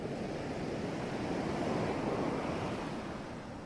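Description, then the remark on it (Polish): Steady ocean surf washes continuously, a broad soft rushing roar that swells slightly in the middle and eases toward the end, with no voices present. “Oddychając dalej, wsłuchuj się w dźwięki fal, które słyszysz.”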